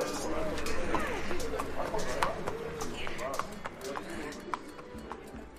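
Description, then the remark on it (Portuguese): Horse hooves clip-clop in a steady, moderately loud rhythm, accompanied by scattered bird calls and a busy outdoor background, as warmed-up horses are readied to set out on a journey. “Os cavalos estão esquentados. Então eu preciso ir.”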